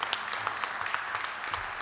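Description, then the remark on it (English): An audience applauding, a steady wash of many hands clapping together at moderate volume, dense and continuous throughout with no talking over it. “So um, I'm going to ask, uh, yeah, let's give, them, let's give them a round of applause.”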